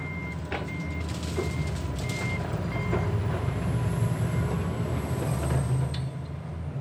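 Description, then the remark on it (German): A regional train rumbles steadily at Kiez station, where it stops once an hour and only the main building still stands, its low engine drone filling the scene while a series of short, evenly spaced warning beeps sound early on. No one speaks. “Nur das Hauptgebäude bleibt erhalten für den Regionalzug, der hier einmal pro Stunde hält.”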